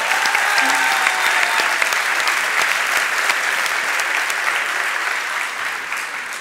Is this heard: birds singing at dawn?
no